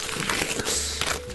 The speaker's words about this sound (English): It's very well wrapped. It's lovely wrapping paper.